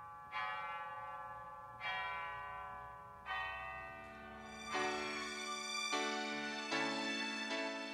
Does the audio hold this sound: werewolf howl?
no